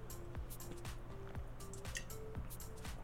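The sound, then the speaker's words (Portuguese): A person drinks water in steady gulps, about six wet swallowing sounds at an even rhythm, with no talking. “Deixa eu beber água aqui pra gente começar.”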